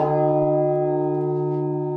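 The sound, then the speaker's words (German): A deep, heavy church bell in the belfry of St. Johannes church tower in Wernigerode, one of two bells weighing tons each, hums with a sustained, resonant tone, its rich overtones ringing steadily and loudly without fading across the short stretch, with no voices. “Sozusagen in der dritten Etage liegt die Glockenstube. Der 20-Jährige ist begeistert von den beiden tonnenschweren Glocken.”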